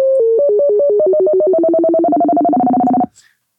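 A loud synthesized FM tone warbles between two pitches as the pitch of the triangle-wave modulator is raised; the alternation steadily speeds up while the two notes spread further apart, one rising and one falling, before cutting off abruptly.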